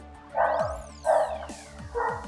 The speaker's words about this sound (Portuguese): os cachorros estão chamando o William